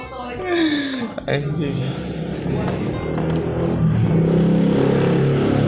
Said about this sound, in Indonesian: Nah itu suara motor. Karekam tuh ya dia. Karekam.